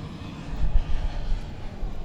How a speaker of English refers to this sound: take a break there for airplane.